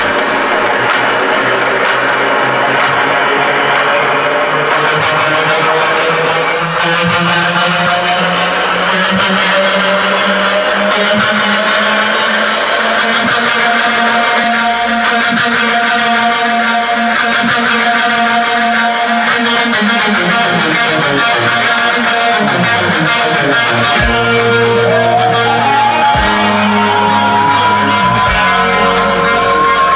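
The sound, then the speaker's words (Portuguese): Loud, dense electronic dance music from a live DJ set performed at the Rock in Rio festival, with rising synth sweeps over a pounding bass and a crowd roaring underneath; a voice briefly speaks over the mix. “se apresentou no Rock in Rio com esse som aqui, ó.”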